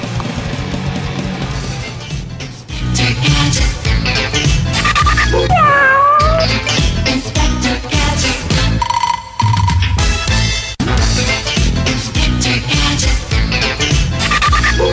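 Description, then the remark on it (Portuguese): A cat meows in drawn-out, gliding cries partway through, set against loud, busy music that plays continuously, with a brief steady electronic tone near the end. No one speaks. “Chegando aqui o gatinho Bugiganga, o nosso gato skatista detetive.”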